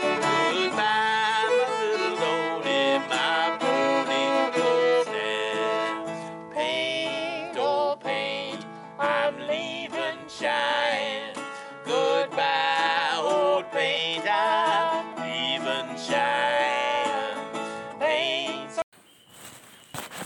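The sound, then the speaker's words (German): A loud, dense chorus of many birds chirping and whistling over one another without pause in a forest on private land, busy, with no voices. “Aber ich wollte hier mal den Lärm, den die Vögel hier verursachen,”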